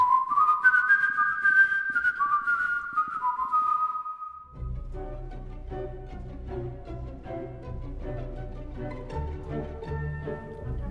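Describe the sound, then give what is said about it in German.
Someone whistles a short, clear melodic phrase alone for about four seconds, the notes stepping downward: a film's only leitmotif, Edvard Grieg's In the Hall of the Mountain King from the Peer Gynt Suite, whistled again and again. Then fuller instrumental music with low bass takes over. “Es gibt nur ein Leitmotiv, eine einzige Melodie und die wird immer wieder gepfiffen.”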